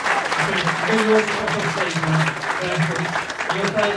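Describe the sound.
A crowd claps steadily for several seconds, a dense, continuous wash of applause with faint voices and murmurs mixed in underneath.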